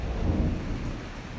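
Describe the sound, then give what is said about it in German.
A low, rolling rumble of thunder swells and then slowly fades, with a steady hiss of rain underneath. No one speaks. “Ui, da donnert's.”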